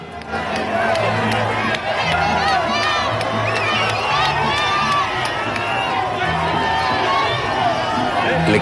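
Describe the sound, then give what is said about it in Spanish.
A large crowd outside the United Nations building in New York cheers the president as he leaves, shouting continuously, many overlapping voices rising and falling in a loud, dense roar with occasional higher-pitched yells standing out. “desde esta mañana el presidente iba saliendo del edificio de Naciones Unidas allá en Nueva York, en donde la gente lo vitoreaba.”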